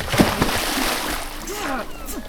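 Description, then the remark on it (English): A sudden splash as someone jumps into water, followed by continuous sloshing and churning water, with a faint voice briefly audible underneath. “Stuck up guards aren't going to jump into the water for a little petty theft.”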